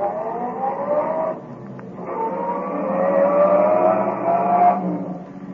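A car engine revs and pulls away, its droning pitch climbing steadily as it accelerates, loud, with no voices over it.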